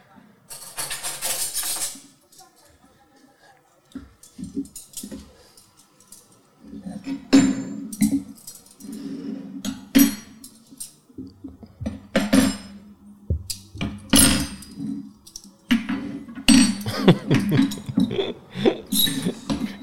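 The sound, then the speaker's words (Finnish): Metal cutlery clinks and clatters repeatedly as pieces are set down on a table, fairly loud, in irregular bursts with brief pauses between them. “kolinasta kaikki voi päätellä, mitä tää tapahtuu.”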